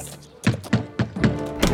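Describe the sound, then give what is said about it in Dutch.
Five firm knocks on a wooden door, in a Nativity story where someone knocks seeking a bed for Mary and Joseph, in a slightly uneven rhythm, clear, with nobody speaking. “Jozef en Maria kloppen helemaal niet aan. Dat doe ik.”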